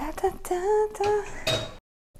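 All the dirty dishes are tossed into a basin in a quick series of about four clanks, each leaving a bright metallic ring, before the sound cuts off into silence.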